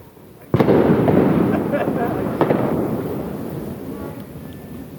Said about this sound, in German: Ähm, ihr hört im Hintergrund Geböller, das liegt daran, dass der 31.12. ja auch, auch Dieses Jahr auf Silvester fällt?